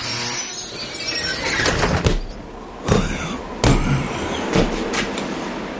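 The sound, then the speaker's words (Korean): A worn bus door squeals and creaks open with a few harsh scraping screeches and knocks, fairly loud over a steady low rumbling background, with no one speaking. It is the entry door of a bus disguised as a tour bus, stopped at night on wheels wrapped in thick chains, just after its engine stops. “낡은 새소리를 내며 출입문이 열린다.”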